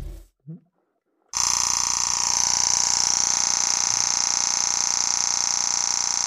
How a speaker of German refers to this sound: Jetzt pass mal auf. Jetzt machen wir hier mal Burst-Modus. So klingt das.